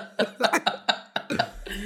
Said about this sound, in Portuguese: Ai, amiga, não sei, acordei com uma tosse meio estranha, acho que vou ficar em casa.